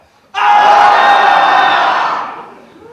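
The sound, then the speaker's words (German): A large audience screams together on a count of three in one sudden, loud burst that starts abruptly, holds steady for about two seconds, then fades out as voices trail off. “Wir schreien alle zusammen auf drei.”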